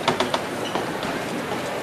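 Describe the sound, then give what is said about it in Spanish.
Costaleros' footsteps thud and scuff on hollow wooden platform boards as they step onto the stage, three quick knocks at first, then a few fainter steps, over a steady noisy background. “Vamos pisando el tablado, ¿eh?”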